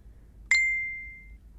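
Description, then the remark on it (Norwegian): A single bright notification ding from a mobile phone as a message arrives while its owner drives a car, struck once and ringing out cleanly for most of a second over a low, steady rumble. “Mobilen gir meg ikke fred.”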